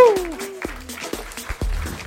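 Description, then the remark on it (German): Sparse, scattered audience clapping at the St. Peter Café after two hours of live music, a handful of separate sharp claps rather than a full ovation, opening with a voice giving a falling whoop of cheer. “Vielleicht noch einen kleinen Applaus hier.”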